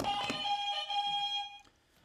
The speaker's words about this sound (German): Ähm, macht euch bereit an den Buzzern.